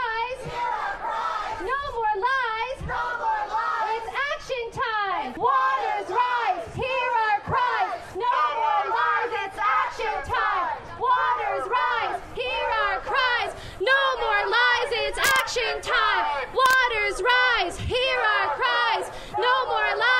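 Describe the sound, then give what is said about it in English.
A large crowd of an estimated couple hundred people at a Fridays for Future climate rally, which began at the MUN Clock Tower, chants "Waters rise" in loud, rhythmic unison, with shouts and cheers rising between the repeated phrases, sustained throughout. “That is some of what we heard at the Fridays for Future rally earlier today.”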